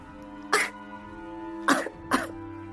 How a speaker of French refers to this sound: Il tenta alors de se faire rire lui-même, en se faisant des grimaces devant un miroir. Et au lieu de rire, il se mit à tousser.